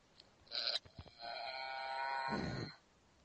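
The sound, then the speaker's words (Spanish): A brief rattling click, then a single drawn-out moo from an educational toy cow (a moo can bought at a toy shop), steady and buzzy, lasting a couple of seconds before dropping off. It is fairly loud, with no talking. “Bastante irritantes ya como para ahora tener a media España, si es que nos llega a escuchar media España, con la vaca...”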